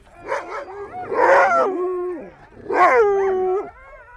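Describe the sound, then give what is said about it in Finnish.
Sled dogs in Sisimiut howl and bark together, long wavering howls layered with sharp barks and yips in two loud swells, with no one speaking. “Sisimiutissa on 6000 asukasta ja 5000 koiraa.”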